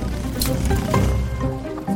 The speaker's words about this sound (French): C'est bien. Parapluie, tu te replies.